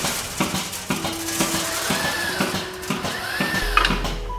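A milking robot on a 120-cow dairy farm in Spijk, near the German border, whirs as its arm turns under a cow before attaching the cups, with a steady mechanical hum, rising motor whines and occasional clicks and clatter. No one speaks.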